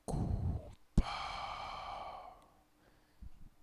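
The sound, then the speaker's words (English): Heavy, mechanical respirator breathing in a movie trailer, loud: a rough rasping intake followed by a long hissing exhale with a metallic, resonant edge, then a brief faint breath. No one speaks. “You hear the breathing”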